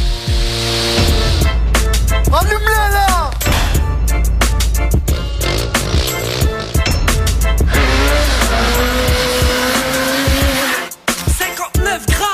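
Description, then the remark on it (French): Loud engines of quad bikes and motorcycles arriving in front of the town hall rev hard, riding in all directions, their pitch sweeping up and down in repeated bursts, with occasional tyre squeal, continuous for most of the stretch before cutting off near the end. “Devant la mairie, ça arrive avec les quads et les motos, ça fait du deux roues dans tous les sens et, ça agite un peu ce conseil municipal et cette municipalité.”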